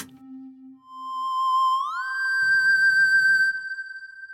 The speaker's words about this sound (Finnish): sitten on kolmioaalto, joka on vähän samankaltainen, mutta siinä on vähän tuommoista. Kuulostaa vähän enemmän huilulta. Niin. Sieltä korkealta ainakin.